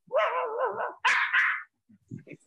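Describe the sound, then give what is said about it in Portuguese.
A person imitates a mongrel dog barking: a drawn-out, wavering whine followed by two quick, loud barks, then a few faint low murmurs. “E o vira-lata de pobre, ele dá dois latidos no final”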